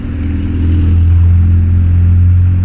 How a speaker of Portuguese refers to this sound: E provavelmente vai ter muito áudio ruído de carro passando.